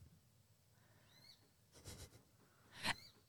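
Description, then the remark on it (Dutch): A few faint, thin, high-pitched peeps from young coot chicks, which call like this when they cannot see one of their parents, followed by two short bursts of breathy, rustling noise in an otherwise quiet outdoor setting. “Dat zijn de jonge meerkoeten hier.”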